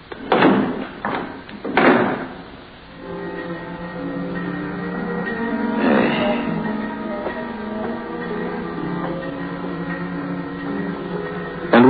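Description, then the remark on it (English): A morgue compartment door is closed and its knob turned so the latch clunks shut, with a few sharp thuds at the start, then a steady low droning hum carries on alone. “And turned the knob that held it shut.”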